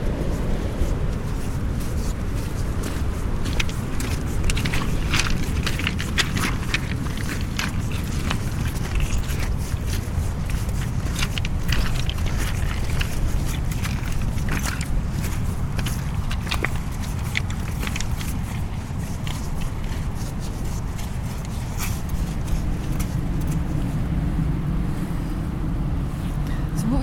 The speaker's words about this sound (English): I mean, what we didn't say is Tiree is an island, part of the Inner Hebrides, um, located between Mull and the bottom end of the Outer Hebrides. And we've got the full Atlantic breakers crashing on this beach in front of us.